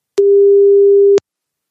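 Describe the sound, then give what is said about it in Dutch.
A single steady phone ringback tone sounds once for about a second, loud and clear with no voices, starting and stopping with a slight click before silence follows. “Je moet helemaal de telefoon opzetten, want anders hoor je Ron niet. Oh ja. Als hij opneemt.”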